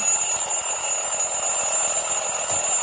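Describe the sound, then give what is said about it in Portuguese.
A continuous, shrill electronic alarm clock rings steadily at a high pitch, loud, with a rapid buzzing pulse throughout and no voices. “Vamos, vamos tocar o despertador, então, para qual primeiro?”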